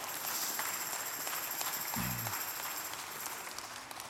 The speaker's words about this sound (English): I think everyone in the world should have one big party and become friends. Yeah, you can clap for that, absolutely.